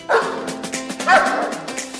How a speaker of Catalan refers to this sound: Com sentiu, els gossos, i no són pocs, formen part de la seva vida, del seu dia a dia.